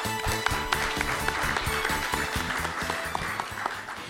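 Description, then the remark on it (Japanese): An audience claps steadily and fairly loudly throughout, a dense wash of many hands, with a rhythmic, low-pitched musical pattern pulsing underneath, at an investor relations seminar held in Fukuoka on July 28, welcoming a presenter from Shofu Inc. “大きな拍手お願いいたします”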